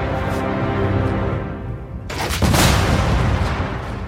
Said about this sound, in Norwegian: Kanonen i posisjon! På min kommando!